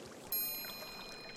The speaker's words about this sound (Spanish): Por favor, quédense con nosotros unos momentos más para recibir el beneficio de una terapia sensorial, el sonido del agua.